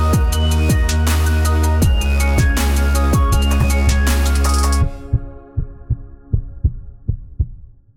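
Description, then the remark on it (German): A steady, rhythmic heartbeat thumps beneath a bright synth intro jingle; the music cuts off abruptly midway, leaving the low heartbeat pulses continuing alone and gradually fading. “Herzschlag für ein gesundes Berufsleben.”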